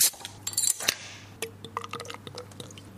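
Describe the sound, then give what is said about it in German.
Spelt beer (Dinkelbier), amber-coloured and naturally cloudy, is poured into a glass at a bar counter, with bright splashing and gurgling that settles into scattered drips and faint clinks, over a steady low hum and no talking. “Dieses Geräusch hört sich schon so toll an.”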